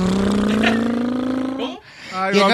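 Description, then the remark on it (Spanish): A voice imitates a motorcycle engine, riding from Zaguayo, Michoacán, toward Zacatecas via Guadalajara, with a loud, buzzing vocal drone that slowly rises in pitch, breaks off briefly, then revs up again. “¿El moto?”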